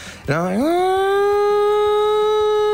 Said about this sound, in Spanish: la sirena de la mina que estaba en las tribunas y que te indicaba que Cobreloa se te venía encima.